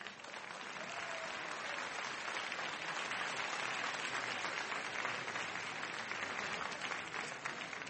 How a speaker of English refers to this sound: In a couple of minutes, we're going to bring our debaters out on the stage. Uh, I will be repeating a lot of, here they come now, a round of applause for our debaters.